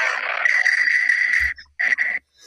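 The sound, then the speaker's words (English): Loud, breathy exhalations blown close into a microphone, a long sustained rush followed by two shorter bursts after a brief pause, harsh and hissy with no words spoken. “can you stop just like breathing into your mic and making a whole bunch of weird noises?”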